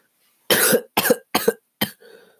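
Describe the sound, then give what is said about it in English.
A loud burst of four harsh coughs in quick succession, each short and raspy, followed by a faint breathy trailing sound. “uh, I love coughing.”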